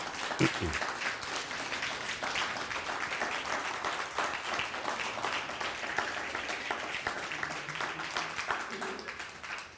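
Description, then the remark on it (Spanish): Sustained audience applause welcoming all the nations, a dense, steady patter of many hands clapping at an even, fairly loud level without letting up. “Pues bienvenidos todos, un fuerte aplauso por favor a todas las naciones.”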